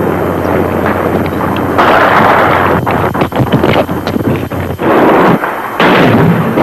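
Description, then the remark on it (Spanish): Heavy gunfire crackles continuously, punctuated by loud booming blasts of tank shelling as La Moneda is bombarded and shots are fired at the room, with a roaring, wind-buffeted rumble throughout; dense, no voices. “Continúan los tiros.”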